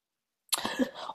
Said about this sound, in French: Je suis Désolée pour la toux.